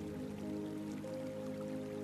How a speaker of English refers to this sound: The air feels a little cooler with a breeze coming off the ocean. Even from a distance, you can hear the crashing waves.